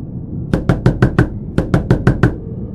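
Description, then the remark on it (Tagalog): Two quick bursts of five firm knocks on a bedroom door, fairly loud, separated by a short pause, with no one speaking. Someone is knocking to wake a person inside, fearing there is a thief. “Kumatok siya sa kwarto namin at ginising si Papa sa pag-aakalang may magnanakaw.”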